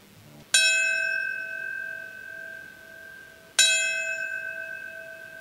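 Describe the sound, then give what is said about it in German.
A single memorial bell tolls twice, about three seconds apart, at a 20th-anniversary memorial, marking each moment a plane crashed; each clear, resonant strike rings on with a long, shimmering hum that carries into the next. No one speaks. “Ein Glockenschlag immer dann, wenn sich der Zeitpunkt eines zerschellenden Flugzeugs jährt.”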